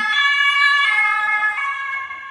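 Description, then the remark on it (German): A loud emergency vehicle siren wails steadily with rich harmonic tones behind the speakers in Cologne on a Wednesday evening, holding strong for a couple of seconds before easing slightly as it moves past outside. “Das wird jetzt kurzzeitig das sehr, sehr laut. Die Sirenen, ja, nur ja, hinter uns sind die Sirenen.”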